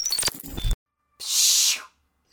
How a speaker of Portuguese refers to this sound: Meu gato tá miando muito alto lá fora.